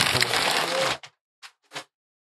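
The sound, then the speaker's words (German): A loud, rough ripping and crunching for about a second as an old Amazon cardboard shipping box holding a gift is torn open, followed by three brief, softer scraping rustles spaced apart. “Ah, okay, also ich kann es aufreißen. Du kannst es aufreißen, ja. Ich kann kurz zu Lärm kommen.”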